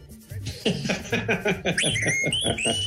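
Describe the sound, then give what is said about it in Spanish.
A knife sharpener's whistle rings out in a run of high, stepped tones near the end, heard over laughter and chatter from several people. “Y recuerden que el afilador toda la vida chiflado, ¿eh?”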